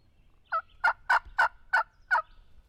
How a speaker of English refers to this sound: He never answers that, but a couple of times when we were doing that scratching, he he actually gobbles back to it. He actually answers us scratching in the lead, and I don't think he I don't think he ever answers me calling.